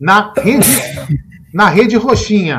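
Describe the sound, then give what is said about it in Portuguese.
A single sharp sneeze bursts out loud in the middle of conversation, with people talking and laughing just before and after it. “Saúde.”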